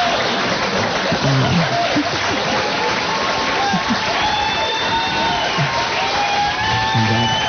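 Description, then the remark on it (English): A studio audience applauds and cheers steadily, a dense wash of clapping with whoops and shouts rising over it, loud and sustained throughout. “you deserve an applause. from”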